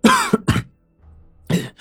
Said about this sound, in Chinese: 我注意到马王爷这几声咳嗽深而沉闷，他这一咳嗽，满脸都是痛苦之色，不像是装的。